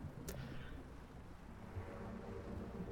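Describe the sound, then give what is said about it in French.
A low, steady engine drone from a boat approaching in the background at night, humming beneath constant background noise, with a brief sharp click near the start and no voices. “Donc là, vous voyez, je sais pas si vous entendez, vous avez un petit bruit déjà dans le, dans le fond, un espèce de bateau qui arrive.”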